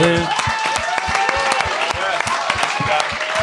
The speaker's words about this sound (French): on devrait même les applaudir. on devrait les applaudir.